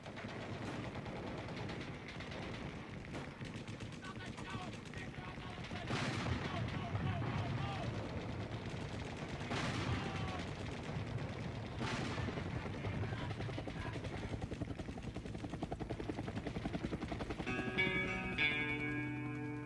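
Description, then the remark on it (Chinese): Sampled battlefield sounds open a war-themed song: a steady war-like rumble of rattling gunfire with several heavy artillery blasts bursting out, and tonal music starting to emerge near the end. “因为这是一首跟战争相关的歌曲嘛，所以说它有枪炮声啊、士兵的呼喊的声音的采样。”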